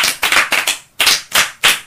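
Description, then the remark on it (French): A class claps together as a bravo for a pupil's answer, in loud, slightly ragged bursts, about four quick claps, a brief pause, then three more, with no voices over them. “Ah, les moustiques. Un bravo pour elle.”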